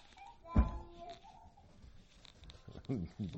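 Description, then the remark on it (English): A single sharp dog bark rings out at home, trailing into a brief whining tone, with a low murmur underneath and people starting to talk shortly after. “Did you hear my dog?”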